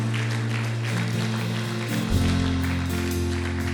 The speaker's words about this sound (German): Komm, lasst uns einen Applaus geben und das feiern.